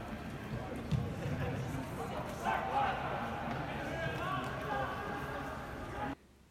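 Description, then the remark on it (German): Football match in an empty stadium, the first Bundesliga match played without spectators, Borussia Mönchengladbach against 1. FC Köln: players' shouts and calls echo through the open space, with occasional ball thuds and a steady, hollow ambient wash and no crowd noise. “Ja, und was ihr jetzt gehört habt, das war das erste Geisterspiel der Bundesliga in der Geschichte der Bundesliga, um genau zu sein.”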